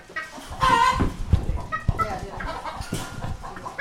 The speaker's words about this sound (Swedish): Och sen har vi tuppen. Nu är han ju lite stressad men eh, eh vingarna ska ju bättre upp på honom.